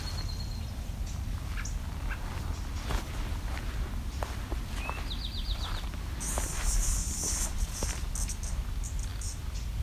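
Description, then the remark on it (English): A cicada starts buzzing partway through on a side trail among cedars and white spruce. It is a steady, fairly loud high drone that continues to the end, over outdoor ambience with footsteps crunching and a few short bird chirps. “There goes a cicada.”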